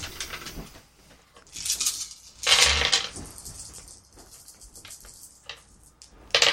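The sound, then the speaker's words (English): Dice rattle and clatter across a hard tabletop in several quick bursts of sharp clicking, with a louder tumble midway and another clatter at the end, with no voices. “We roll our dice.”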